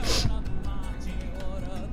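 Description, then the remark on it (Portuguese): A quick, airy sniffle through the nose of a person moved to tears opens the moment, a single sharp hiss of breath, followed by a faint steady murmur with no clear speech. “Meu nariz tá fungando aqui, porque eu me emocionei.”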